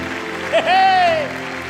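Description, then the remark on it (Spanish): An audience gives a big round of applause to the king, God, in a steady, dense wash of clapping, while one voice rises above it in a single long, high, sustained cry. “Dale un aplauso grande.”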